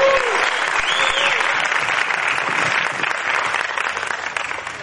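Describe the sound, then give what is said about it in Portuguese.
A crowd applauds a speaker being introduced, a steady, dense wash of many hands clapping at an even loudness throughout, with faint whistles and a few voices mixed in. “não precisa de muitas palavras, só salvo de palmas para esse camarada.”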